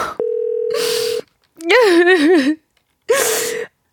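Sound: telephone ringback tone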